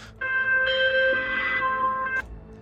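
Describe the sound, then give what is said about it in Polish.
A phone rings once as a call is placed to King Cross, with a steady, bright electronic tone that lasts about two seconds and then cuts off. It sounds clear, with no voices. “E, i, I co, no oczywiście wykonałaś telefon.”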